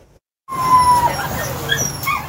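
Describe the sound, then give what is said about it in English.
A puppy, one of 97 animals seized by the BC SPCA from a Princeton property in September, whimpers with thin high-pitched whines that rise and fall over a steady background hum, starting abruptly after a brief silence. “This puppy is one of 97 animals seized by the BCSPCA from a Princeton property in September.”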